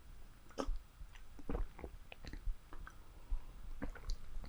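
Someone drinks a glass of osmosis-filtered tap water in a few gulps, with wet swallowing and soft mouth clicks coming in an irregular rhythm, fairly quiet and with no talking.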